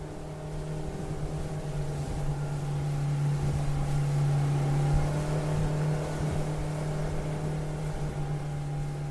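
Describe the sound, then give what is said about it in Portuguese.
A motorboat engine on a lake, driven at high speed, drones steadily, a low, even hum with a faint rough edge and slight swells in loudness, running continuously with no voices. “Não importa quanto tempo você fique no lago dirigindo a lancha, você jamais irá encontrar esse silêncio.”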